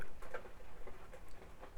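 Soft, irregular pattering of rain, light ticks and drips scattered across a steady background hiss, fairly quiet, with no voices.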